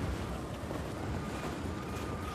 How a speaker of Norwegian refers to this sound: For at vi må nesten søke ly, vi. Ah, fra, vi må søke ly fra vinden her.